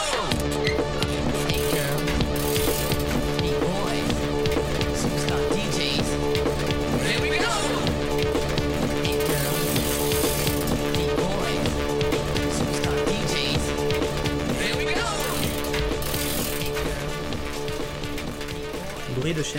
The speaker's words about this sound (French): Je la salue d'un signe de tête, déjà hypnotisé par la rotation sans fin du pédalier entre mes jambes et le rythme soutenu de big beat dans mes écouteurs.